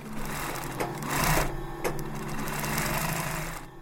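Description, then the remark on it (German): A sewing machine stitches hand-cut teddy bear fabric in teddy bear production, its rapid mechanical whirr and needle clatter holding a fairly loud, even drone, with a few brief surges in speed. No one speaks. “Nach dem Zuschneiden wird es genäht.”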